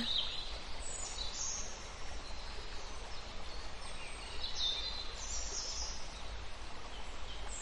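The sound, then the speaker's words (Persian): A faint, distant chorus of birds chirping high and thin over steady outdoor background hiss, from a flock flying overhead and several birds perched on tree branches, continuous for the whole stretch with no one talking. “دسته ای از پرندگان در آسمان در حال پرواز هستند چندین پرنده روی شاخه های درختان نشستن.”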